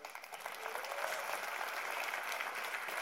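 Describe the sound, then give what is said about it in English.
A crowd claps steadily for everyone who came, a dense wash of applause that swells slightly after the first half second and holds at an even, fairly loud level without anyone speaking. “Give you all a round of applause for coming.”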